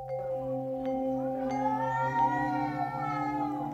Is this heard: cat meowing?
yes